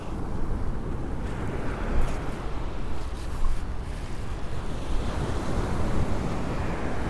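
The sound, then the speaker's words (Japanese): Steady roar of ocean surf rolling onto the shore at sunrise, with louder wave crashes swelling now and then, mixed with wind buffeting the microphone. No one speaks. “特にお話ししなくても波の音があればいいかなと思ってライブやってます”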